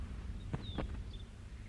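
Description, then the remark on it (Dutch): Caged birds chirp faintly: a few short, high-pitched peeps and one brief rising whistle, scattered over a quiet room hum, with a couple of soft knocks in between. No one speaks. “Dat zijn vogels in kooien.”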